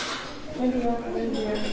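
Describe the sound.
Dishes and cutlery clink in the breakfast room of the Villa Baviera, the former Colonia Dignidad, with green terrazzo floor tiles and white-laid tables, a scatter of bright, light taps over a steady murmur of indistinct voices.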